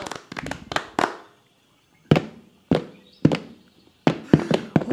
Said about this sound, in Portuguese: Bota a espora de chelena nos pés, ao som da viola e sai dançando. Ora batendo parma, ora sapateando.